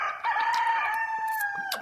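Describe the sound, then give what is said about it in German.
A rooster crows in a backyard, one long, loud cock-a-doodle-doo, its strained, harmonic call held steady for nearly two seconds, with no talking. “Es ist ja ein klares und deutliches Kikeriki.”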